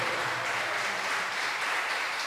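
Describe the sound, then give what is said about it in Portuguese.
An audience applauding the Lord, a dense, steady wash of many hands clapping at an even loudness throughout, with no voices standing out. “Você pode aplaudir o Senhor por causa disso?”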